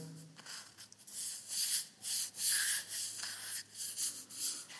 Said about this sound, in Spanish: En algunas de ellas se ve la roca original Estoy rascando la roca. Y al lado están eh, las paredes algo lisas.